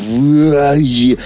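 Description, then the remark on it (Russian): A person voices one loud, drawn-out gagging retch lasting about a second, a strained throaty groan that cuts off abruptly. “Это вот а то, что у меня, когда я вижу рыбные котлеты.”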